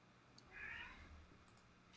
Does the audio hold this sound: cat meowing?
yes